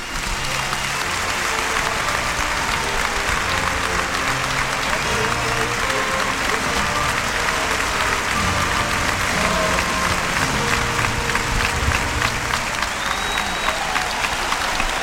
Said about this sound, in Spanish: y se recrudece la fuerza de la ovación. Cortito, breve e intenso.